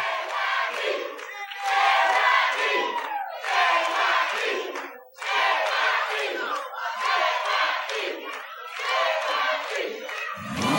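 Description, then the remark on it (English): A loud arena crowd at a televised wrestling show chants "JYD" for wrestler the Junkyard Dog in a steady rhythm, repeated bursts of massed voices rising and falling roughly every second and a half, with a brief dip midway before the chant resumes. “Crowd is chanting for JYD.”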